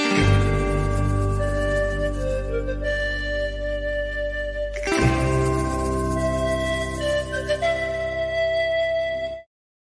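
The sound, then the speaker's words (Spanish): Peruvian-style flute music plays loudly and steadily, long sustained melodic notes layered over a deep, droning low end, with a brief dip about halfway before it swells back in. No one talks. “Mira, esa, esa música suena como si Mandalorian fuera de Perú.”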